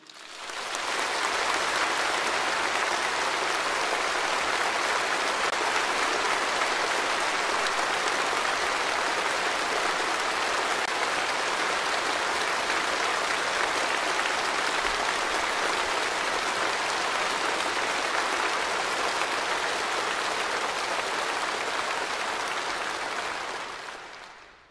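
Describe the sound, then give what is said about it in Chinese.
The audience at China's 20th Party Congress applauds Xi Jinping's speech on reunification with Taiwan, a dense, unbroken roar of clapping that holds at an even loudness for about twenty-five seconds before ending abruptly, with no voices. “你等下倒回去重看一次哈，鼓掌的声音长达二十五秒，是习近平二十大他的迎来第三个五年谈话当中全场的最高潮。”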